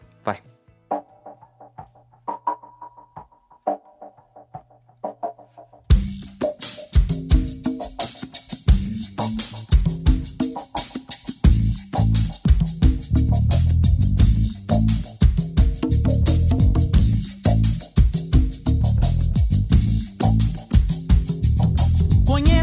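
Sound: song intro playing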